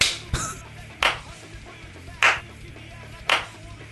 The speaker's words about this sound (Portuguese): Passa aplaudindo olhando sério. Parabéns. Parabéns, vocês merecem.